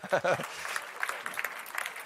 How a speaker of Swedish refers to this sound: Ska vi ge dem en applåd också? Ja, lite bättre kan vi va?